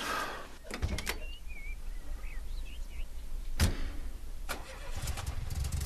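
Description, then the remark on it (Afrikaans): A car engine turns over and settles into a low rumble as the speaker's grandmother drives off in the car, with a few sharp mechanical clunks and faint birds chirping in the background. No one speaks. “Ek sê jy laat weet hoe ry my kar.”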